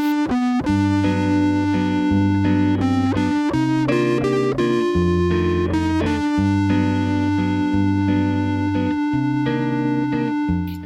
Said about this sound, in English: He uses also like a lot of feedback, distortion, some very subtle electronic sounds.